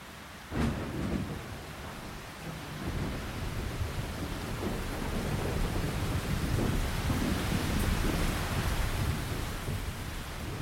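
A thunderstorm with a long, rolling rumble of thunder building from a sharp crack, while heavy rain pours steadily and loudly on the roof of a Fiat car throughout, with no voices.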